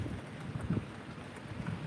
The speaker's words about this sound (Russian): поливал землю, говорили, льет дождь, льет дождь, гром гремит, Илья пророк, и тот промок. Вот, слышали? Вот, вот он ответ на наш, наши слова.